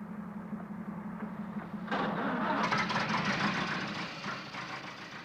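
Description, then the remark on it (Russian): A car engine idles with a low, steady hum, then abruptly revs up into a louder, rougher roar about two seconds in and keeps running as if pulling away. No voices. “Ну, в машину. Поехали!”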